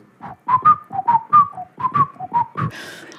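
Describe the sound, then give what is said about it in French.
A person whistles a short melody imitating a bird song heard at La Mamounia in Marrakech in 1966, about a dozen quick, chirping notes in a bouncy rhythm, clear, ending with a brief breathy rush. “un chant d'oiseau qu'il a oh. entendu à la Mamounia, à Marrakech en 1966. voilà. C'était, l'oiseau faisait.”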